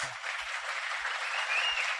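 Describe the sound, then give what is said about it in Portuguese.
Sustained audience applause, a dense wash of many hands clapping at a steady moderate level for the full two seconds, with no voices audible over it. “Palmas. Salva de palmas.”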